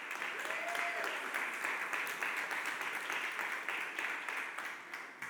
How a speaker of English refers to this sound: Uh, so come on up, give her a round of applause.